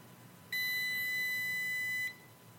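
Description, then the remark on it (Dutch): A single sustained electronic beep from a phone lock box timer at the end of a countdown, steady and fairly loud, lasting about a second and a half before cutting off cleanly, with faint background hiss around it and no talking. “Dan telt hij af. 3, 2, 1.”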